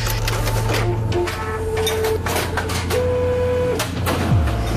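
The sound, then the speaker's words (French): A printer running steadily, with a droning motor hum, rising and falling whines, and rapid mechanical clicks and clatter as paper feeds through. No voices. “tout ce qui peut être imprimé en fait, euh, tout ce qui sort d'une machine imprimante.”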